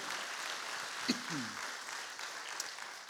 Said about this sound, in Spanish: Dale una ofrenda de palmas al Señor. Aleluya.